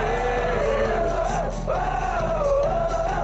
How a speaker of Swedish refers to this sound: Och när de väl vaknar då är matchen slut Och publiken vrålar